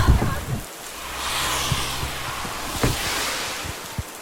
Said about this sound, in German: An diesem Tag war strömender Regen und kalt war es auch.